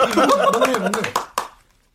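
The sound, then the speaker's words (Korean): A quick burst of hand clapping from three police officers clapping at once, sharp slaps in a rapid rhythm, mixed with voices and laughter, ending with two louder claps before fading out. “그의 정체를 밝혀내기라도 한 것처럼 경찰 셋이 동시에 박수를 쳤다.”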